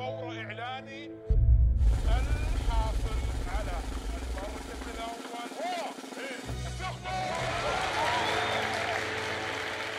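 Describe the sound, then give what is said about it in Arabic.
A hall bursts into loud, sustained applause as the winner is announced, after a moment of near quiet; dense clapping and cheering wash over a low rumble as colored confetti flies, with crowd voices mixed throughout. “أخيرا فتح الله عليه وقالها أعلن عن الأول الفائز الذي سيستأثر بالنصيب الأوفر من حبر الصحف والمجلات وأحاديث الناس وانتباههم ضجت القاعة بالتصفيق وتطايرت القصاصات الملونة بعد احتباسها”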